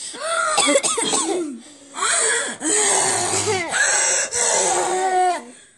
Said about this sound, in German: Einmal tief Luft holen, sich einmal räuspern.